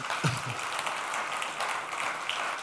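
An audience claps together during a church service, to greet people following the service live: a steady, dense patter of many hands that holds evenly for a few seconds, with a brief murmur of voices near the start.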